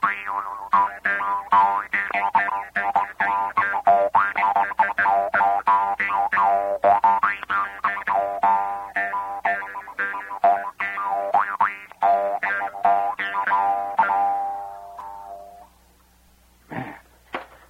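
An Austrian Jew's harp twangs continuously in a rapid, buzzy rhythm with shifting overtones, played fairly loud for about fifteen seconds before fading, then a brief faint twang after a pause.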